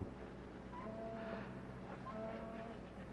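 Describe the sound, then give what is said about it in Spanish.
A ship's siren blows a long, steady low note, held throughout, over a wash of background noise, as the ship is about to set sail within seconds. “¿Oyes la sirena? Es la de su barco.”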